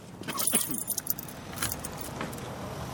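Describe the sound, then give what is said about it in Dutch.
Keys jingle and clink in a few quick, bright bursts, with a low background rumble throughout and no talking. “Ik heb toch ook een sleutel?”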